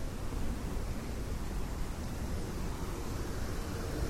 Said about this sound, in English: Look, a lovely little waterfall. Very nice.